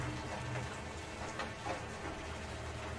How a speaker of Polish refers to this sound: Wychodzimy na szczyt, gdzie deszcz znowu do nas wraca i znowu go słychać.